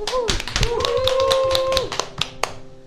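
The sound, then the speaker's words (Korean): A round of applause for the panel members at the end of a GK Radio broadcast, with many quick, irregular hand claps throughout, accompanied by voices whooping and calling out in rising, sliding tones over the clapping. “네, 오늘 정말 이 방대한 이야기들을 공부해오고 알려주신 패널 여러분들에게 박수를 쳐드리고 싶어요.”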